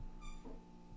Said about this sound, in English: sorry that's my dog and her toy.